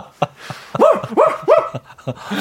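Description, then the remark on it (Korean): A dog lets out three loud, quick barks in a steady rhythm, with a few faint short yips before and after. “헛구역질 하면서 돌기 시작하고 그 집 개가 갑자기 짖을 때”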